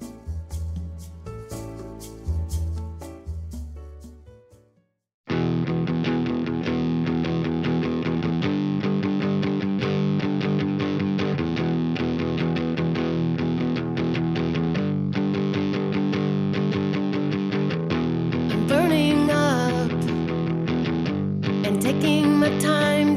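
A rock song plays loud and steady: a brief, quieter intro gives way after a few seconds to a dense full-band sound with distorted guitars, and a singing voice comes in near the end.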